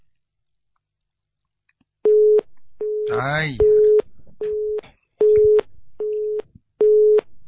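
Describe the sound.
A telephone busy signal after a dropped call on a bad phone line beeps in a steady, evenly spaced series of about seven identical mid-pitched tones, loud and clear, with a brief exclaiming voice cutting in near the start.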